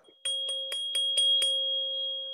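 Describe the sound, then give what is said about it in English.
A 528 hertz tuning fork is tapped with a little hammer about six times in quick, even succession, each strike adding a bright click over a pure, steady ringing tone that hums on clearly without any voices. “It's a tuning fork.”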